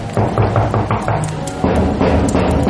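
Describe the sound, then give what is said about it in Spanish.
Loud, insistent knocking on a door by a grandfather waiting outside in the pouring rain, a rapid series of heavy thuds repeating in bursts over a low rumbling background, with no voices. “está cayendo, llaman a la puerta.”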